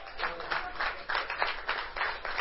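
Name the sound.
audience clapping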